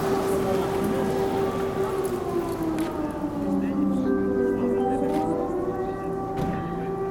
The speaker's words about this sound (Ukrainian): Блін, сирена. Чуєш?